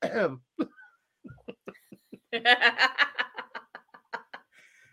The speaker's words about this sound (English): It's just these people really quiet. They're like every once in a while you hear somebody cough.